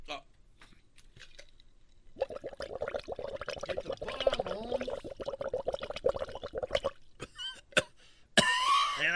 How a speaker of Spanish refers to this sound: Güey, tosiste como el brujo menor, güey.